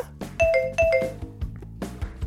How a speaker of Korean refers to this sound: 나 초인종 누른다.